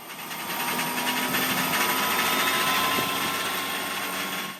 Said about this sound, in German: Und wie schön wäre das Leben doch für Mexikos Präsidenten, wenn die unendliche Flugzeuggeschichte endlich ein Ende fände und die Maschine auf ewig aus Mexiko abflöge. Schmeißt schon mal die Turbinen an.